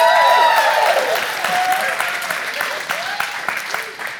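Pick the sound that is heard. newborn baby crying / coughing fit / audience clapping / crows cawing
audience clapping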